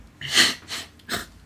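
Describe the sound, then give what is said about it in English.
A sneeze bursts out sharply, followed by two softer, breathy huffs in quick succession, with no talking around it. “Bless you. We are a professional show.”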